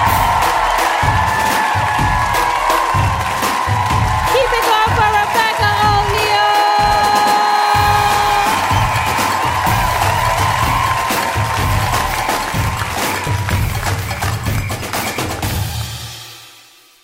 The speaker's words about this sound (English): Clap it up for your wonderful host.